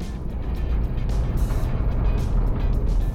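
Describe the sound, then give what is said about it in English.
A deep, mechanical-sounding creature roar rumbles steadily and loudly throughout, with an engine-like growl and slight surging swells, close and unbroken, with no voices. “These roars, they almost sound mechanical.”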